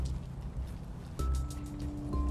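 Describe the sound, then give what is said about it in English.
Water drips from overhead tree branches onto a path like light rain, a soft continuous patter across the whole scene with a couple of sharper drops standing out. No one speaks. “It's nice to hear the rain without getting drops of water down your neck.”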